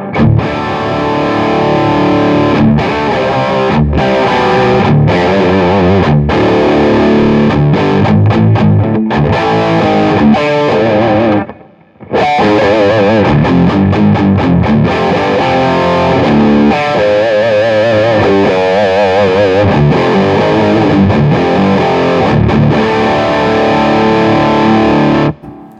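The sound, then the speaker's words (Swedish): Heavily overdriven electric guitar growls through an amp with the gain set at around 12 o'clock or higher, thick, sustained distorted chords and riffs, loud throughout with a brief pause near the middle, no voices present. “Ja, men man hör ändå att så här, klockan 12 på gainen och uppåt, det är väl där den ska vara. Ja, Då morrar den ju otroligt fint.”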